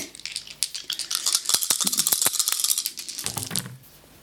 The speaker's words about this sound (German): Diese Würfel sind kaputt. Also ich habe schon wieder eine 11. Mm, also gewürfelt habe ich auch eine 11. Mit dem Bonus habe ich dann 13.